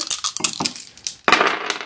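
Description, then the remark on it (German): Black dice clatter and tumble across a hard tabletop in a quick burst of sharp clicks, pausing briefly before another louder rattle of the dice bouncing and settling. “ich nehme mir diese tollen schwarzen Würfel hier und würfel die”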